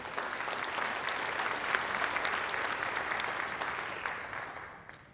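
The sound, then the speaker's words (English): Sustained applause from a church audience clapping in praise of God, a dense, steady wash of many hands clapping at full volume for several seconds before thinning and fading out at the end. “Somebody give God a great big hand clap of praise.”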